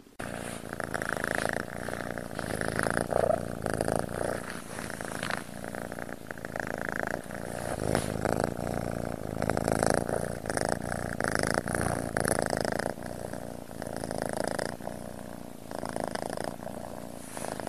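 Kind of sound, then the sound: animal, cat purring loudly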